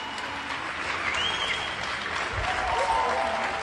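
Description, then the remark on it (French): Steady applause from many people across France at 8 pm during the coronavirus lockdown, from Boulogne-Billancourt to Marseille, thanking health workers. The clapping is continuous, scattered across an outdoor space, with faint cheers and whistles mixed in. “Ce que vous entendez, ce sont des applaudissements enregistrés un peu partout en France hier soir à 20h, de Boulogne-Billancourt à Marseille.”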